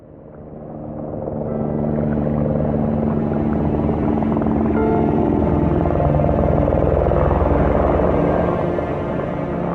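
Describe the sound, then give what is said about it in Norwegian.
A helicopter drones steadily overhead, its engine and rotor noise swelling over the first two seconds and then holding loud and continuous with no voices. It is flying crew members of the burning ship Scandinavian Star, who had left in the lifeboats, back to help with the firefighting. “Noen av mannskapet på Scandinavian Star som dro med livbåtene, blir fløyet tilbake i helikopter for å hjelpe til under slokkearbeidet.”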